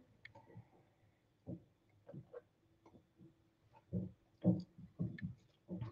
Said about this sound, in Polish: A ja się tutaj napiję wody.